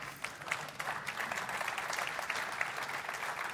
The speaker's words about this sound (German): nicht zu laut klatschen.